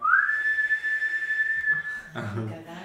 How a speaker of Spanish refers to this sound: El silbón. Toca el silbón.